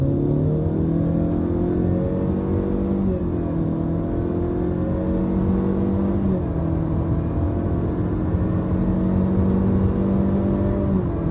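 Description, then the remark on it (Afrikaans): A Honda Civic accelerates at full throttle, its engine drone climbing steadily in pitch and then dropping abruptly at stepped shift points, its CVT gearbox creating seven artificial gears. Loud and continuous, with no talking. “Soos mens kan hoor met 'n voluit wegtrek, skep die paalwisselradkas sewe kunsmatige ratte.”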